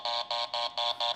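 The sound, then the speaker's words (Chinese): The doorbell buzzer at Huang Zijiao's door pressed in five quick, even bursts, each a harsh electric buzz with brief gaps between, fairly loud and heard alone with no talking. “大家听到的这个是我在按佼哥的门铃”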